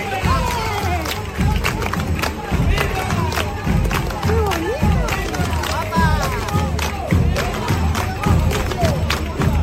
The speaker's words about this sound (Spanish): Van a escucharla. La gente tocando las palmas al compás.